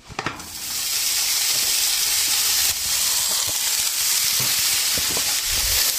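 A package of expired bacon cubes sizzles steadily as it is lightly fried in a frying pan, a loud, dense crackling hiss that runs throughout with scattered sharper pops and spits, with no voices.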